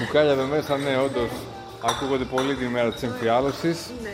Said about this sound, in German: Ja, an Tagen der Flaschenabfüllung geht es bei uns laut zu. Heute ist es der dritte Reiter, ein dunkles Stout.